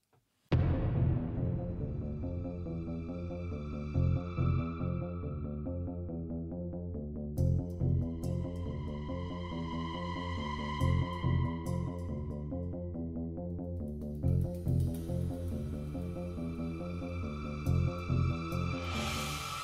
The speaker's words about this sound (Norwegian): Da er vi tid for en kort pausetone.